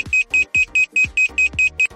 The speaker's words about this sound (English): You can then send a 90 decibel audible alarm which will scare off a potential thief.